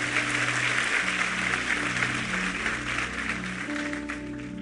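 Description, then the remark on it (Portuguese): Sustained applause from an audience asked to stand, on the last Sunday morning of the year, a dense, steady wash of clapping from many hands at fairly even loudness, with a low tonal hum running underneath throughout. “Vamos aplaudir a ele, vamos ficar em pé, vamos embora.”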